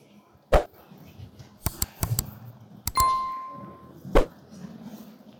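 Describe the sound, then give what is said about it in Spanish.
The metal chains of an unlit censer clink as it is swung at the start of Holy Mass, about six sharp, irregular clinks spread over several seconds, one leaving a brief ringing tone, over a faint background murmur. “que moverle bien, está apagado eso.”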